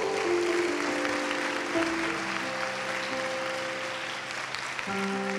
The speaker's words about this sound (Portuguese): Você gostaria de dar um aplauso ao Senhor?